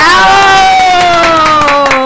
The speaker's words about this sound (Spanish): Demos un aplauso